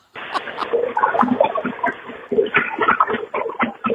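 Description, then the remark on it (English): Wet suction-cup-like smacks and slurps from a man cleaning his backside, recorded on a voicemail, repeat in a rapid, irregular stream, pausing briefly midway before resuming just as loud and squelchy. “when I tell you that it sounds like a wet suction cup noise”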